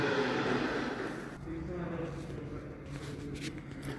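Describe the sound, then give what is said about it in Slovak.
Muffled voices of several doctors discussing quarantine measures at the hospital in Bojnice, heard through a closed door, indistinct and steady, with low rumbling room tone and occasional faint shuffling. “Som pri dverách, za ktorým práve prebieha porada lekárov ohľadom karanténnych opatrení v Bojnickej nemocnici.”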